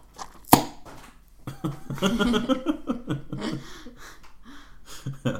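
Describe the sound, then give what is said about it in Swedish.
A sharp click, then a voice makes a strained, wavering call imitating a peacock, blending into laughter and breathy chuckles that fade toward the end. “men du kan härma en påfågel. Så. ja, det vill jag att det ska vara. En påfågel, ja.”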